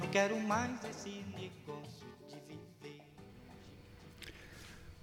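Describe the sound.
A relaxed bossa nova song with a soft male voice singing in Portuguese over gentle nylon-string guitar, the final phrase trailing off as the music fades toward its close.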